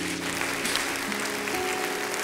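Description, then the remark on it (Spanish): Audience applause offered to the Lord, a dense, steady wash of many hands clapping at once, sustained at an even loudness throughout with a faint sustained tonal hum running underneath. “Así es que un aplauso al Señor por todo lo que ha hecho.”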